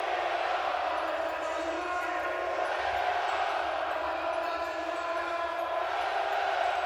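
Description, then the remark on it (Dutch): A large stadium crowd roars steadily in the background, a dense, continuous wash of many voices and cheering that stays at an even level throughout, with no single voice standing out. “Op de achtergrond ook het stadion.”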